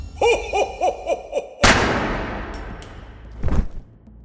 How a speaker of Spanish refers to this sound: sintió inmediatamente después de abrir la puerta fue una bala en el rostro. Aquel Santa Claus era Bruce Pardo cobrando venganza debajo de su disfraz rojo.